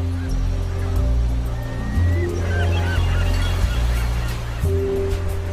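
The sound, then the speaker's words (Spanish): Seagulls cry out in scattered, fairly faint calls over a steady roar of surf and wind on a lonely open beach in California near Morro Bay, with no one speaking. “Allí, bajo las gaviotas y los surferos con sus trajes de neopreno, llegan las comunicaciones asiáticas.”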